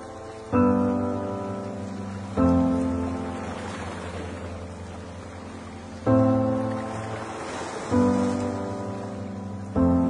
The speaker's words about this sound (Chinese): 应该有两三首歌里吧，都会用到海浪声。在 intro 的时候，它那个海浪声是最明显的。